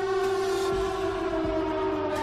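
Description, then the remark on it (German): A civil defense siren sounds the danger warning, a loud sustained wailing tone holding steady through the whole stretch, with no voices and only faint low rumbling underneath. “Also ein Heulton, der auf- und abschwellen so”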